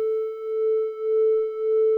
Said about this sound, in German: Diese Schwebung, wenn ich sie leicht verstimme, ja. Jetzt habe ich zwei Töne, ne? zwei Sinustöne. Einer kommt vom Model D, mein Kammerton, und der andere kommt hier aus meinem Eurorack genau. raus.